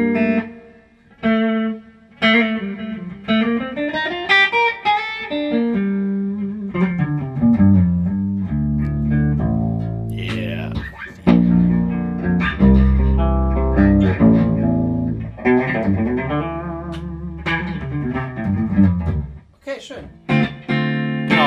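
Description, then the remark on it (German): An electric guitar plays through a Blue Guitar amp with the reverb cranked all the way up, with sliding bends and low notes trailing off into long, washy, ringing tails. No one speaks. “Drehen wir den Hall ganz auf.”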